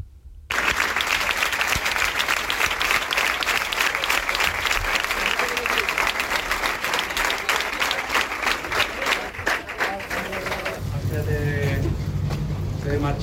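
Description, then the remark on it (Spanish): Sustained crowd applause at a gathering at the Arcángel stadium in homage to Álvaro Prieto, dense and steady like a large gathering clapping together for several seconds, then fading into a low rumble with a faint tonal sound near the end. “Vaya por delante, el sonido de lo que ha sido una concentración en el Arcángel, de eh, homenaje a Álvaro Prieto.”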